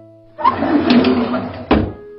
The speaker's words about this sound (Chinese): 熊叔叔把门关上。